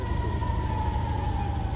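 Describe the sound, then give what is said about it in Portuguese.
Air raid warning sirens wail in Tel Aviv, Israel, on a Tuesday, in a long, sustained tone that rises and falls only slightly, loud and steady over low rumbling city background noise, with no voices. “Em Tel Aviv, capital financeira do país, as sirenes de alerta voltaram a soar nesta terça-feira.”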